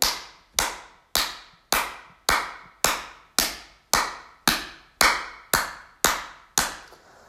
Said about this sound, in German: vor dem Herzen zusammen und reibt die Handflächen aneinander. Und dann klatsch einmal richtig doll in die Hände.